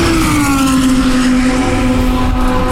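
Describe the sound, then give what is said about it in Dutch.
Loud, continuous roar of race car engines at the Zandvoort circuit, with a steady high engine whine holding its pitch and a rough low rumble throughout, dense with no pauses and no voices. “Met eh, heel, heel harde auto's op de achtergrond.”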